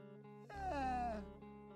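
A drawn-out yawn in a song recording, coming in from the middle of the verse during a late-night vocal take, swells up over a steady musical backing, rising and wavering for about a second before fading back into the quiet accompaniment.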